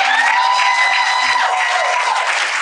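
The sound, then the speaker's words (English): A large crowd claps and cheers loudly and continuously for B Simone, with scattered whoops and raised voices rising over a steady wash of applause that fills the whole stretch. “We're gonna say first off, please give another round of applause for B Simone.”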